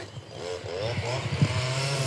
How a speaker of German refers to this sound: Das äh, ist übrigens ein Laubbläser. Sehe ich jetzt. Ich gehe auch mal ein bisschen zügiger, damit ihr nicht den Laubbläser die ganze Zeit hört.